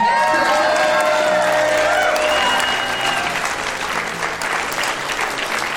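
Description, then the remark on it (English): A church audience claps steadily as a clap offering to the Lord, dense applause with scattered cheers and whoops rising over it, loud and sustained throughout. “Come on, can we give the Lord a clap offering?”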